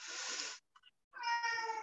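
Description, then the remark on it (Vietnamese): A pet cat meows twice: a breathy, noisy first cry, a short pause with a faint chirp, then a longer, clearly tonal meow that wavers in pitch. No one speaks. “à, chị em có nghe tiếng mèo chị không”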